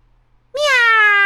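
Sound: cat meowing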